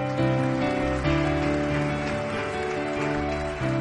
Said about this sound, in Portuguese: Aplauda Jesus pela vida dessa guerreira.